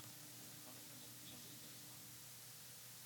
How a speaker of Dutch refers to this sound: luister via streaming en wij horen op de achtergrond storende ruis... en jullie steeds dubbel.